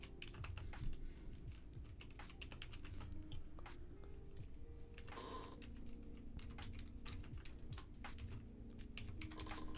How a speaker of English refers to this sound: why am i typing with one hand